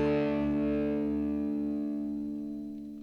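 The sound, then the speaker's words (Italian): A short burst of music: one sustained, heavily processed chord rings out loud and steady, then slowly fades over a few seconds. No voices are heard. “Oh ragazzi, cioè, questo è un pezzo che non passa inosservato. Cioè, tu lo senti e dici, ma che canzone è questa?”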